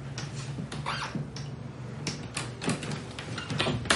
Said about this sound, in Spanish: Cierra la puerta por dentro.